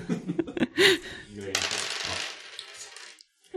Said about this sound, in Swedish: Eh, så då får jag slå tre tärningar mm. eh, för att bräcka eh, hästen.